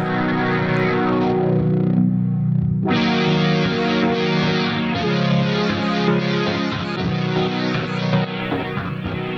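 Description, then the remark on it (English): A loud, sustained synthesizer chord, buzzy and effect-laden, plays continuously through a Boss SL-2 pedal with an auto-panning effect sweeping it side to side; a brief dip in brightness occurs midway, with no voices. “How good's that? The auto panning.”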